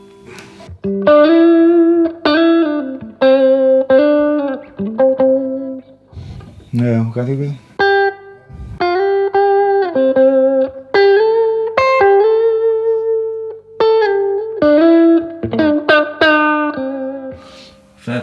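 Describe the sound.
Heavily distorted electric guitar, its effect set to very high gain, plays loud, sustained chords and riffs with thick harmonic buzz, broken by a brief pitch-bending squeal midway; a voice briefly talks over the playing.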